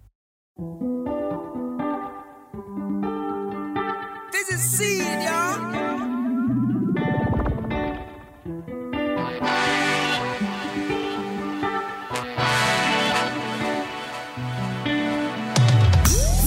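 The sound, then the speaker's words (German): Dense electronic music from a Berlin band's fifth album, with layered synth tones, swooping pitch-bending effects and sustained chords, loud and full throughout, with a brief spoken line near the start. “… heißt das fünfte Album der Berliner Band nach sieben langen Jahren Abwesenheit.”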